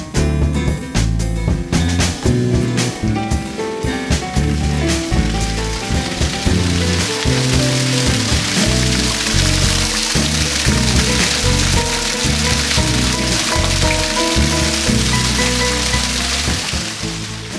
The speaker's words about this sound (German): Wir stehen jetzt in Balduinstein, wieder im Ort, an einem kleinen Wasserfall, an einem, ja, sieht so ein bisschen aus wie so ein römisches Aquadukt, also wie ein Viadukt nur oben mit einer Wasserleitung drauf.